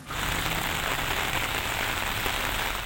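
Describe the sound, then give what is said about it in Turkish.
Heavy rain in Düzce, Turkey, of the kind that caused flooding, pours down in a steady, dense hiss, a constant roar of drops hitting surfaces with a faint crackle throughout, loud and unbroken, with no voices. “Fakat Düzce'de şiddetli yağış su taşkınlarına neden oldu.”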